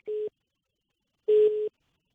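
A telephone busy tone after a dropped call: two steady, mid-pitched beeps separated by a second of silence, the second longer and louder than the first, with no talking.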